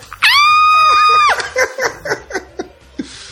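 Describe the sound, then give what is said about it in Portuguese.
A person lets out a loud, high-pitched, excited scream held for about a second, re-enacting the yell given on winning a contest, followed by a run of short bursts of laughter. “Como é que foi o grito que você deu lá que você ganhou?”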